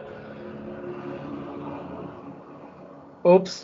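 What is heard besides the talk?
car driving past outside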